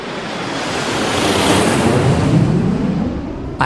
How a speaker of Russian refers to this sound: Этот звук большинству из нас знаком. Так приземляется пассажирский самолет.